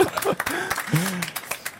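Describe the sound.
A few people in a small live audience clap unevenly, with sharp scattered hand claps mixed with voices talking and laughing over the sparse applause.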